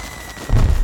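After a brief quiet hiss, a sudden deep, loud firework blast erupts, its low rumbling boom rolling on through the rest of the moment. No voices.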